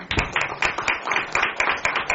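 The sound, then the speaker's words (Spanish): Steady, rhythmic clapping, with about ten sharp claps in quick succession at an even pace, fairly loud, with no voices over it. “¿Se merece esto un aplauso o no? Sí.”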